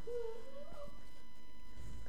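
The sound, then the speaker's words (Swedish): A small dog lets out a thin, high whine that rises and wavers for about a second, then fades, leaving quiet room noise with a faint low rumble. “Jag har en liten hund där som vill gärna vara med.”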